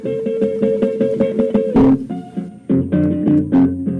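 Acoustic guitar plays a steady, rhythmic delta blues pattern of repeated plucked notes, with a few louder strummed chords breaking in, clear with no singing yet.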